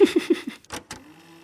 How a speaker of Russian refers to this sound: они пришли, они сверлят на дверь.